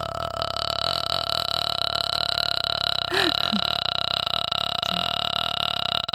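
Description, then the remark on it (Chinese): A voice imitates people at a performing-arts school doing daily morning vocal fry practice facing a school building wall: one short, low, creaky croak, almost burp-like, with a fainter follow-up rasp, over a steady high-pitched hum. “在那练那个气泡音啊，就是哎，每天练早功，那挺刻苦的。”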